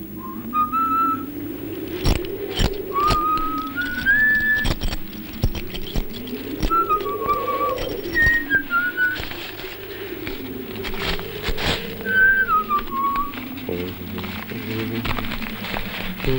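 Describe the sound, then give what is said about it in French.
A lone whistled melody glides in bright, sustained phrases over a spaghetti western–style film score, with a droning low accompaniment and sharp percussive hits, played steadily throughout. “Je vous propose, si vous le voulez bien, une seconde pause musicale.”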